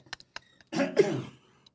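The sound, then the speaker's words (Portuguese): A loud throat clearing rolls into a short rough cough, preceded by a few faint clicks and breaths, with no talking. “É, eu comecei a tossir.”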